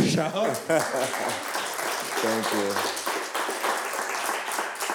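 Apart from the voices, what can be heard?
audience applause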